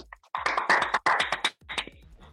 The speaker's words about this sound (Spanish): Oye, ya que escuchamos toda la serie, un aplauso a todos, weón.